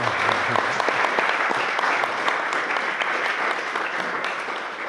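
An event audience claps steadily for several seconds, a dense, crackling wash of many hands applauding at once, full, with no pause throughout.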